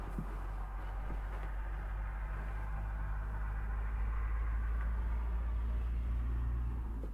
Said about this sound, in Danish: Så nu er det jo stadigvæk om dagen, hvor der er mange biler.